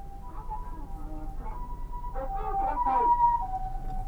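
An ambulance siren wails in a steady two-tone pattern, growing louder as it comes up from behind and passes a car being driven, heard from inside the car with brief bits of voice underneath.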